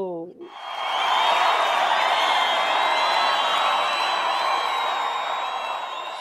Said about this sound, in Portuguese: Olha só! Aplausos, aplausos.